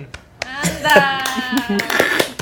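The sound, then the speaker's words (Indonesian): Scattered hand claps ring out at an irregular pace, sharp, mixed with overlapping voices that carry on underneath throughout. “tepuk tangan”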